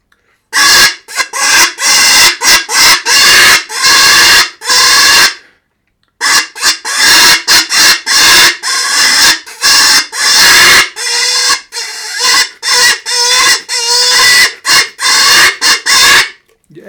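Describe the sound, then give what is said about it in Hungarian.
Loud, piercing pig-like squeals blown from a telescopic tube call, its end held closed by hand and the tone shaped with the thumb, coming in rapid, choppy bursts, with a brief pause partway before the squealing resumes just as insistently. “a visító hang. Tényleg valódi disznó.”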